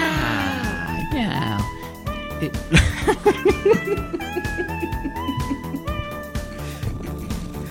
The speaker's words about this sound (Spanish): Miau,